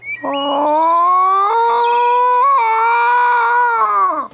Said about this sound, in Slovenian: A, to pa je pav, ne že.